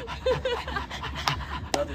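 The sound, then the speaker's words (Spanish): People imitate a dog's panting with quick, rhythmic breathy huffs, several voices overlapping, with a couple of sharper bursts near the end. “Todos, todos haciendo como.”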